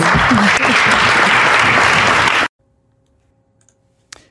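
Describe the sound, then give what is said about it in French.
A large crowd of elected officials, standing, bursts into loud, sustained applause for about two and a half seconds, then it cuts off abruptly to near silence, with a brief faint clatter near the end. “Vous avez entendu, donc les élus, c'est ça, se sont levés.”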